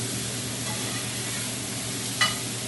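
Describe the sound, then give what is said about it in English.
Vegetables seasoned with salt and pepper sizzle steadily in a hot pan with a constant hissing crackle, broken once near the end by a quick scrape as they are stirred. No voices are heard. “See how when you moved them, they instantly started getting kind of like softer.”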